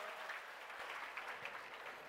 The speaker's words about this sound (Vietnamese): rất tuyệt vời dành cho những người đang có trạng thái nhảy múa một tràng vỗ tay thật lớn